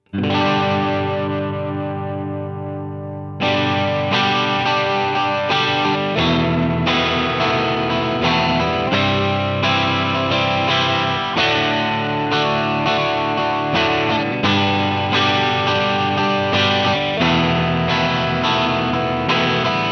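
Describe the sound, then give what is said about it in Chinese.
An electric guitar runs through a Centaur (Klon-style) overdrive pedal: one ringing chord fades for a few seconds, then loud, steady strummed chords follow with a warm, mildly gritty tone. No voices. “再试一下人马的声音。”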